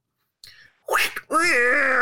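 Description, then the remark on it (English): A cat meows: a brief faint chirp, a short rough burst, then a loud, drawn-out, wavering meow, with no one talking. “I'm going to let the cat out of the bag in oh, this one. Can we hear it?”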